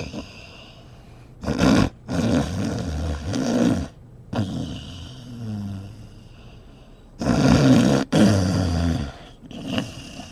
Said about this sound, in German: Im Bus saß niemand außer mir und einem alten Mann, der sehr laut schnarchte.